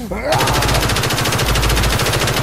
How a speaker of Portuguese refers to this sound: Ao mesmo tempo, um infectado surgiu correndo em direção a eles. Pedro virou a tempo e atirou vários projéteis até derrubá-lo.